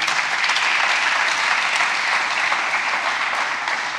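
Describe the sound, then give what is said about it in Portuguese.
Steady applause from a crowd, a dense wash of many hands clapping at an even loudness for several seconds, with no voices standing out. “Você pode dar um aplauso aí, pelo amor de Deus.”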